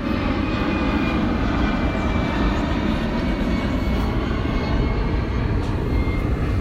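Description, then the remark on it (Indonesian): A loud, steady roar of an airplane, apparently from Halim airport, passing close overhead, a broad rumbling drone that holds constant throughout with no voices. “cuma ada pesawat tadi ada bola sekarang ada pesawat”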